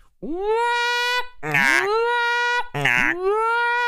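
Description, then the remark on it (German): A loud alarm-like whoop, used as a spoiler alarm, sounds three times in quick succession, each tone sweeping upward in pitch and then holding, with harsh, buzzy bursts at the start of the second and third. “Ich mache kurz den Alarm.”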